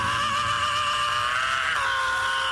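A loud, sustained scream from a rock song, held on a high strained pitch over a band backing, dropping slightly in pitch near the end before cutting off.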